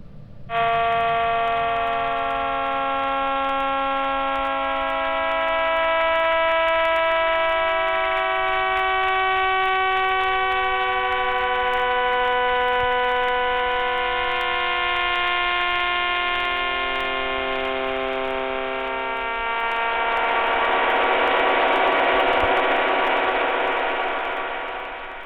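Sonified radio pulses of 22 rapidly spinning millisecond pulsars, from Jodrell Bank, University of Manchester, form a dense, steady chord of many overlapping sustained tones that drone on without pause, then near the end shift into a brighter, hissier wash. No voices.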